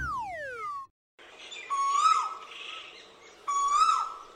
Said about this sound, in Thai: ถึงเวลาหาคู่ก็ส่งเสียงร้องดังที่เราได้ยินกันค่ะ และเสียงร้องกาวว่าวกาว่าวเนี่ยเป็นเสียงของนกตัวผู้ค่ะ